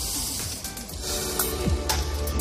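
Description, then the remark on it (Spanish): Steady, rushing water pours from a tanker truck handing out water to local residents during a water shortage, a dense continuous splash with a few clunks and thuds underneath, and no one speaking. “Vamos a ver si podemos escuchar cómo cae el agua en este momento.”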